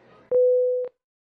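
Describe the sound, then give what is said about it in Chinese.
A telephone busy tone sounds once after a phone call is hung up, a single steady mid-pitched beep lasting about half a second, loud and clean after a faint murmur, then silence. “哎呀妈，没事我就挂电话了，我还要回去上课呢，拜拜。”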